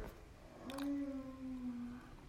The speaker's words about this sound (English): I'm, yeah, my daughter's t- tired. You can hear it in the background.